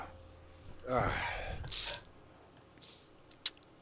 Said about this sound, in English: I got a sneeze. I hate it.